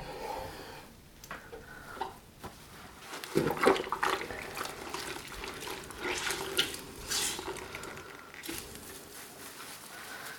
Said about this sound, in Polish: Na początek kręcąc sobie takie kółeczka, ślimaczki, rozprowadzam pierwszą warstwę wody z detergentem po całej powierzchni szyby.